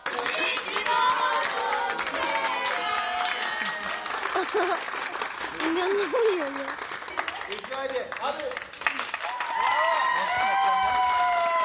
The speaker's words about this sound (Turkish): İkinci günün ilk saatlerinde gece yarısı Ümraniye'de bir sokağın balkonlarından iyi ki doğdun sesleri alkışlar yükseldi.